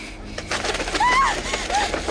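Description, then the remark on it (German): An owl hoots a few times in short, wavering calls, clear but not loud, over a soft steady background ambience with no one speaking. “Eine Eule.”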